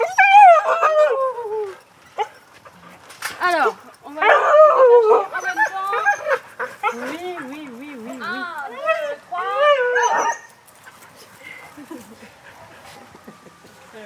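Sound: dogs barking and whimpering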